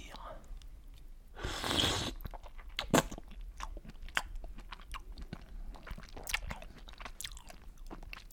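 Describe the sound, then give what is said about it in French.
Wet sounds of a person eating a raw oyster: a brief slurping rush as the oyster is brought to the mouth and swallowed, then a sharp click and a run of soft, moist chewing and mouth noises, fairly quiet with no talking. “Décaloter le petit pied, porter l'huître à sa bouche et la déglutir.”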